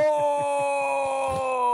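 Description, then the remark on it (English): A single voice imitates Darth Vader's drawn-out, anguished 'no' yell from Star Wars, held as one long, steady, groaning cry, loud throughout and ending abruptly. “Is that Confirmed. like Darth Vader yells no?”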